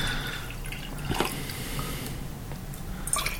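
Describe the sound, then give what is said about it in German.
Water trickles and splashes into a glass for a few seconds, poured again as an in-between rinse, a steady liquid pour with a couple of brighter splashy moments, with no one speaking. “Nochmal Wasser zum Zwischenspülen.”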